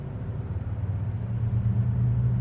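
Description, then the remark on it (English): Steady low road rumble from traffic, with a car engine swelling a little louder as it passes. No voices, just continuous vehicle noise throughout. “So if you hear the cars and shit, just know that's why.”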